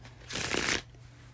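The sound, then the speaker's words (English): A quick burst of tarot cards being shuffled, a crisp papery riffle lasting about half a second, fairly loud, with no talking over it. “Let me do a quick shuffle.”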